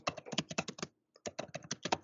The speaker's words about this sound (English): This is ASMR of me typing.